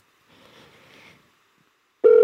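A loud, steady electronic telephone ringing tone of a call placed to someone in New York cuts in abruptly near the end, following a stretch of faint, soft rustling noise and then near silence.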